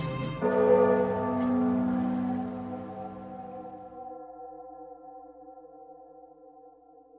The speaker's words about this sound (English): that tolling of the bell and those shouts, though he doesn't know it spell a threat to the mariner, whose ships even now gather in the harbor outside of Nordia, waiting to strike.